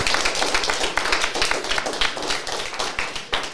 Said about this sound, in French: Alors on va applaudir tout le monde, allez-y, on peut applaudir bien fort tout le monde, toutes les équipes.